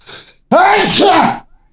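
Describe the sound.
A single loud sneeze: a faint breathy intake, then a sudden forceful voiced burst that lasts about a second before cutting off.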